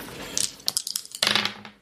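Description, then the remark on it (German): Dice clatter across a tabletop in a roll of 100 during a tabletop role-playing game: a scatter of sharp, bright clicks and rattles in quick bursts, with a louder tumble near the end before settling. “Würfel mit wir 100.”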